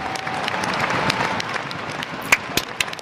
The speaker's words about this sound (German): Applaus für die Familie vom Cirque Alphonse in Salzburg.